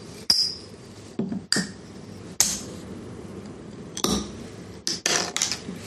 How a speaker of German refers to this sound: Wir machen erstmal ein Bierchen auf, ne? Äh, erstmal anstoßen so? Erst auf dann anstoßen. Okay. Warte mal, das ist so ein toller Verschluss hier, San Miguel.